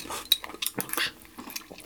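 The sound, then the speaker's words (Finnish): Glasses clink together in a toast, several quick bright taps with a brief ringing tone, fairly quiet, with no one speaking. “Ainakin pitää kilistellä taas. Kippis.”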